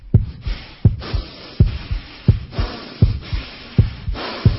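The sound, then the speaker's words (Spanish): A voice imitates the accelerated breathing of a patient under general anesthesia: quick, rhythmic breathy puffs repeating about every three-quarters of a second, each with a sharp onset, steady and moderately loud, with no talking. “Respiración acelerada, respiración acelerada, doctor.”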